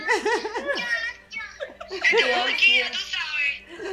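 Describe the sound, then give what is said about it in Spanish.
A small child, the speaker's granddaughter, giggles in high, bouncy bursts at a house, with a string of quick laughs at the start followed by squealy, excited vocal sounds. “Y ella anda con mi nieta, la escuchan ahí.”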